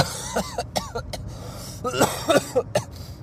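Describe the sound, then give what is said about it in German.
A man with a sore throat and fever coughs repeatedly in short, rough bursts, with some throat clearing mixed in: one cluster of coughs, a brief pause, then another harsher fit, fairly loud. “Mann, da muss man nochmal drüber stehen über so ein bisschen Husten, Schnupfen, Halsen, Heilsamkeit und Heiserschmerzen.”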